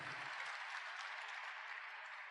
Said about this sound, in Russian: Сегодня, сегодня здесь с нами еще, еще раз аплодисменты. Спасибо.